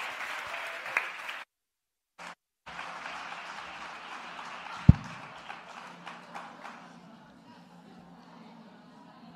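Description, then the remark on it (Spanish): An audience claps steadily, a dense wash of applause that cuts out briefly, returns with a sharp thump, then thins and fades away. “Un aplauso para ellos.”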